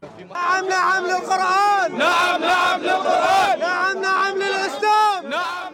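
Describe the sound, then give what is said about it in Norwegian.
An angry crowd of protesting residents in Amman, Jordan, shouts "The Koran is our constitution" in unison, loud overlapping voices rising and falling in rhythmic chanted bursts throughout, with strained, high-pitched yelling and no pause. “Koranen er grunnloven vår, roper sinte innbyggere i Amman i Jordan.”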